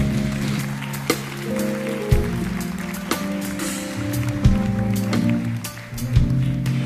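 An audience at a concert in Maputo, Mozambique, applauds a musician from England in a steady, crackling wash of clapping, heard beneath sustained musical tones whose low notes shift a few times. There is no speech.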